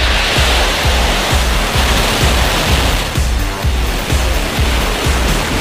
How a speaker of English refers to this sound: Five, four, three, two, one, zero. Ignition, lift off.